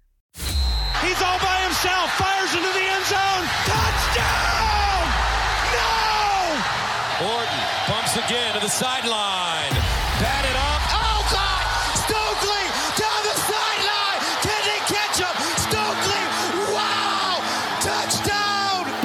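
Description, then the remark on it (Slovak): A loud, densely layered show jingle plays for about twenty seconds, packed with shouts, whoops and crowd-like sports sound effects over busy music, with a brief dip partway through. “Dáme si kratočku prestávku na džinglik a pôjdeme do New Yorku.”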